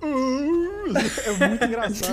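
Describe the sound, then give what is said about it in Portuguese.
A man's voice imitates a video game character's death groan, the sound the character makes when killed by an axe blow: one drawn-out, wavering moan lasting under a second, sliding down at the end, followed right away by his ordinary speech. “e ele, mesmo quando você morre normal, tipo, não matar a Ashley, ele tem um dos melhores barulhos de morte do mundo, assim, tá ligado?”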